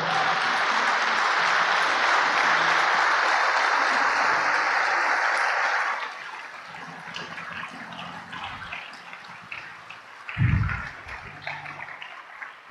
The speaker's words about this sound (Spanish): Dale un aplauso al Señor, por favor.